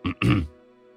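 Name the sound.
man clearing his throat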